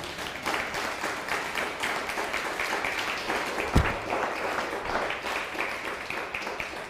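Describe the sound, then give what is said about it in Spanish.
Sustained applause for Hashem from a Jewish audience fills the whole stretch, a dense crackle of many hands clapping at steady loudness, with one brief low thump partway through and no voices standing out. “Denle un fuerte un fuerte aplauso a Hashem.”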